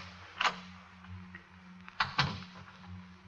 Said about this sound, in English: Then she hears his key in the lock.